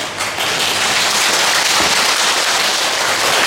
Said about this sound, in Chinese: 拍拍手。